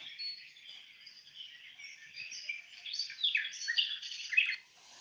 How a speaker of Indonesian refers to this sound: Hanya terdengar kicauan burung yang indah.